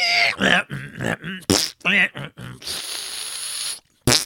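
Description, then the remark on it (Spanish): A person vocally mimics dial-up modems connecting over a telephone line in a handshake: a rapid series of squeaky, warbling bursts followed by a sustained hissy, static-like screech and a final short burst, fairly loud. “Pues resulta que esos modem lo que estaban haciendo con todos esos ruidos era lo que se conoce como un handshake.”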